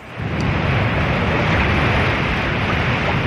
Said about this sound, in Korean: 파도 소리, 저, 황 PD님, 파도 소리 한번 들려주세요. 네, 시원하게.